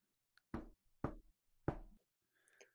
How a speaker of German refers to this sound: Oh, da hat es geklopft, da muss ich einmal zur Tür gehen und kurz gucken, oh, wer ist denn da?